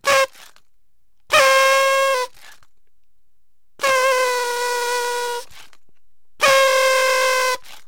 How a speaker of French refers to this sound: La langue de belle-mère, ou le sans-gêne, sobriquet donné à ces cotillons sonores fait d'un serpentin se déroulant sous l'action du souffle et qui produisent un son nasillard tout de suite synonyme de fête.